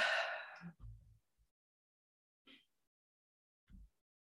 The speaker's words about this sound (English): And yawning is, is one of these things that allows our nervous system to release stress. So it's a very important thing to be able to do.